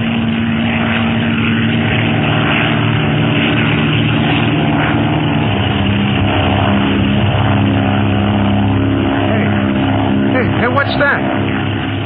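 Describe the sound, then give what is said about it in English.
A black-painted propeller airplane drones steadily and loudly at dawn for the whole stretch, its engine hum holding an even, throbbing tone, with faint muffled voices blending into the roar. “It's a plane, all right. An octopus plane.”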